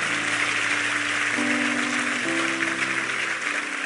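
An audience applauds God strongly at a pastor's sermon, a dense, even wash of clapping that holds for several seconds, with soft sustained keyboard chords underneath that shift pitch twice.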